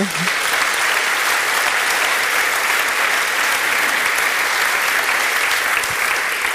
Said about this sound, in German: Können wir bitte mal einen Applaus für diesen jungen Mann haben?